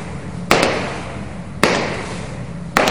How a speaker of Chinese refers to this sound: 他们听到走廊里传来脚步声